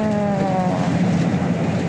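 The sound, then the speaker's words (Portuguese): Steady engine rumble and road noise from inside a moving city bus, sent as a WhatsApp voice message, a low drone with a faint rising whine that fades after the first moment, no voices. “Então a gente pediu para ela gravar uma espécie de diário sonoro, mensagens de voz do WhatsApp que ela foi enviando de dentro do ônibus, para a gente acompanhar mesmo junto com ela.”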